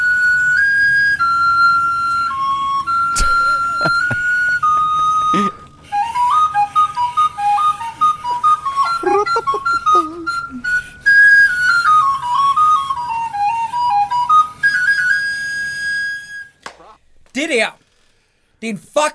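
Clear, steady whistling carries a wandering melody of held and stepping tones, loud and close, with faint background sound beneath and a few sharp clicks, trailing off into near silence at the end.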